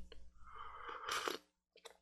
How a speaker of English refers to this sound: sorry, I'm slurping a quick sip so that I don't pass out mid cast.